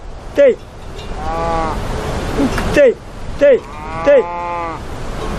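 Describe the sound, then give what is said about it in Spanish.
Herders from the Calabria region call out in short, sharp bursts, four in all, while cattle low in long drawn-out moos between them over a steady outdoor background. “Son los pastores de la zona de Calabria.”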